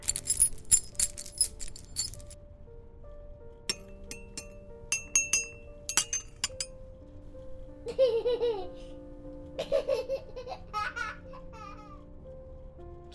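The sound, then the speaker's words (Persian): Children's giggles rise in a couple of short bursts as they play in a dead-end alley, mixed with bright glassy clinks and jingling over a low background hum. “این کوچه بومبسته جلوتر نمیرم بچه ها دارن بازی میکنن به حریم بچه ها نباید وارد شد”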